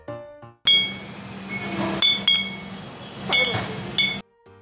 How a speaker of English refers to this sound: This is the sound of bottles clinking, more specifically, McClary Brothers drinking vinegar bottles.